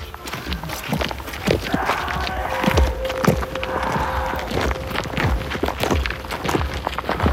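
Steady footsteps walk down a road at an even pace, with faint street noise and construction sounds from across the street in the background.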